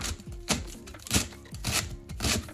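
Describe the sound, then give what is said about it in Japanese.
A knife chops vegetables on a cutting board in four steady, evenly spaced strokes, crisp, with no one talking. “ちなみにこれまでの送ってもらっている音だと謎のタイピングをする音カチャカチャってですねあと猫の毛づくろいの音野菜を切る音”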